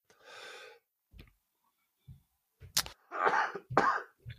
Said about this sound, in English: No, I've had this cough and it's just terrible. I don't think I have pneumonia anymore like I did a month ago or over Christmas, I should say, two months ago.